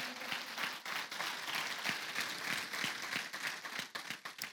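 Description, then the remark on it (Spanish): An audience breaks into steady applause of love for the pastor who had preached that morning, many hands clapping at once in a dense, sustained wash of sound that holds for several seconds with a few sharper individual claps standing out. “Démosle un aplauso de amor.”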